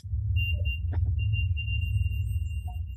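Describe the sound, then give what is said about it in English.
A REM pod alarm sounds a high, steady electronic tone that breaks off briefly once before continuing, over a constant low hum, with no one talking. “Plus, we got the confirmation from the REM pod again.”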